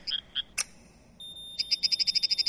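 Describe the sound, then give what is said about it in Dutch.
Recorded sounds of stressed plants: a rapid series of short, high-pitched chirps, a few scattered at first, then a quick, steady run of about a dozen, clear with no talking; a second plant answering the first, the plants warning each other of danger. “Wat u eigenlijk hoort is dat ze elkaar waarschuwen over gevaar.”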